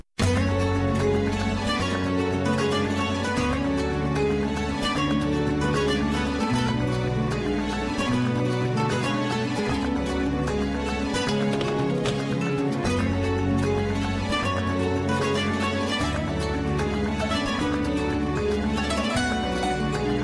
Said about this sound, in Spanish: Vámonos con una rumba que está en el disco de …